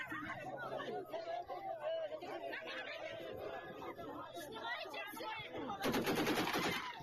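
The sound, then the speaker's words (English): Crowd chatter at a protest against mobilization in Dagestan fills the scene, then a loud, close burst of rapid AK-variant rifle fire cracks out near the end, the shots hammering in quick succession over the voices. “yeah, you can see he's like fire and then people start to move finally right once uh buddy's firing a machine or uh, firing uh, a, an ak variant right in your friggin ear let's just go back i want to see how close was that guy to that dude's ear”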